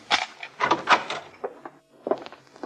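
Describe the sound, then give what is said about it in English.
A hotel room door is unlocked and opened: a quick series of metallic clicks and rattles, a brief pause, then a few more clunks as it swings open. No one speaks. “Guess I'd better unlock it.”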